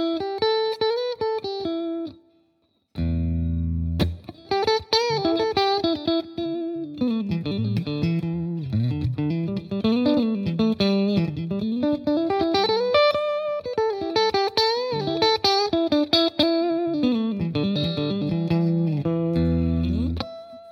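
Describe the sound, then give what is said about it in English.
An electric guitar with a distorted, effects-heavy tone plays a flowing melodic line using only the notes E, G, A and B of the E minor pentatonic, climbing and falling across the neck, sustained low notes ringing beneath, loud with no talking. “can kind of move all around the fretboard just playing those four tones, just playing E, G, A, and B.”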